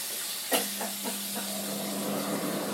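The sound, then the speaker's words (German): Food sizzles steadily in a frying pan, a dense continuous hiss with a sharp pop early on and a few fainter crackles, over a low steady hum. No one speaks. “Aber kannst du nicht leiser braten?”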